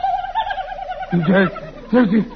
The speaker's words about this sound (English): It's a turkey. A big gobbler.